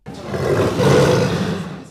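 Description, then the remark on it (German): A wild Siberian tiger in Russia's forests lets out one loud, rumbling roar lasting nearly two seconds, deep and gravelly, steady before cutting off abruptly, with no voices present. “Freilebende sibirische Tiger.”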